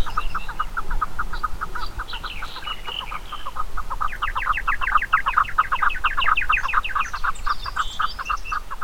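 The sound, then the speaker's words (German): A chukar partridge, a member of the rock partridge family, calls in a fast, rhythmic series of clucking chuk notes that build into a louder, quickening chorus, steady over a low background rumble. “der Name kommt übrigens tatsächlich von der Stimme dieses Huhns. Das ist so eine Art Gesang, aber auch ein Ruf zur Revierabgrenzung, aber auch ein Lockruf in verschiedenen Varianten.”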